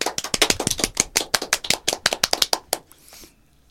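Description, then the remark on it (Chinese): A small group claps for about three seconds, a quick uneven patter of sharp slaps that stops abruptly, followed by a brief faint rustle. “Hello，你们好，欢迎来到《飞行者的二三事》，这是我们的第零集，大家掌声。”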